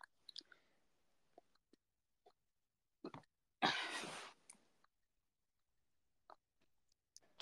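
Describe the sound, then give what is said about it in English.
Quiet mouth sounds of someone eating supper: scattered soft clicks and smacks with pauses between, plus one louder, rougher burst partway through, and no talking. “I'm just having supper.”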